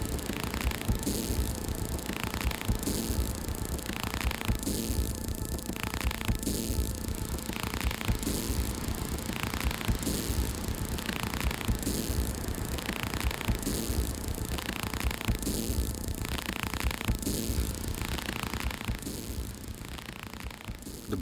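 A minimal electronic music track with a steady, repeating pulse and sustained droning tones, playing continuously at an even, fairly loud level with no voices.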